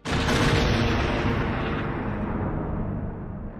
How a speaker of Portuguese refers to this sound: a Fennec detona o Sarlacc com uma bomba sísmica, né? Com aquele som inconfundível